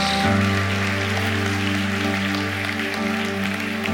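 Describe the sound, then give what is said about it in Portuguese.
An audience at a church service applauds the Lord in a steady, dense wash of clapping that lasts throughout, while a sustained low keyboard chord holds underneath. No one speaks. “Aplaudo o Senhor por essa palavra.”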